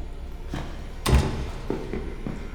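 A door swings shut with a heavy thud, followed by a few lighter clicks and knocks like a latch or lock being worked, with no talking.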